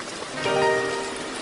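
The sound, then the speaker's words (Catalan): Steady, dense rain from a heavy storm that began suddenly hisses evenly throughout, moderately loud, with a brief tonal ringing rising out of the downpour midway before fading back into the rain. “Era una bona tempesta.”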